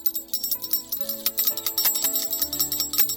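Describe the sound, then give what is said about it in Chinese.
A bright jingling bell rings in quick repeated shakes for about three seconds, its shimmering chimes pulsing steadily over a soft, low tonal backdrop, with no voices. “突然，他们听到了叮叮当的声音。”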